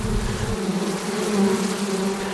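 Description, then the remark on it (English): A queenless honeybee hive roars with a loud, steady drone of countless wings as many bees expose their scent glands and fan their wings, continuous for the whole stretch, with a low rumble at the start and no voices. “If the bees lose their queen, we often get what we call scenting behavior. And that scenting behavior sort of creates a roar.”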